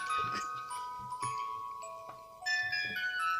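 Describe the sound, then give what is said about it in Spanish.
A small music box, bought as a gift, plays a Star Wars melody of tinkling, high, plucked metallic notes. Each note rings on briefly before the next, in an unhurried, steady rhythm with no voices over it. “Realmente estábamos escuchando esta melodía ahora, de una cajita musical”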